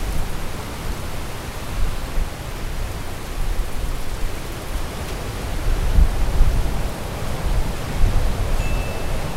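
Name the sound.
ocean waves at night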